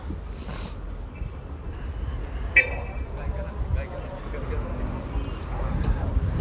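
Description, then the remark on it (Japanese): Busy ambience at a large bus terminal station crowded with people: a steady wash of traffic rumble and crowd chatter, with a couple of brief horn toots rising out of the noise. “さすがこの超バスターミナル駅リルベ相変わらず人がたくさん”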